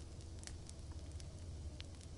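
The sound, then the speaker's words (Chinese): A fire crackles steadily, with a dense low rumble of flame beneath scattered sharp pops and snaps, a few standing out brighter than the rest. No voices are heard. “为他伴奏的是噼啪噼啪的火声。”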